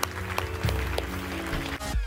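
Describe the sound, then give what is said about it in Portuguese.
An audience at a church service claps together in a dense, continuous wash of applause for people deciding to follow Jesus, with sustained low music tones playing steadily underneath throughout. “Será que nós podemos dar uma grande salva de palmas a estas pessoas que hoje estão a tomar esta decisão?”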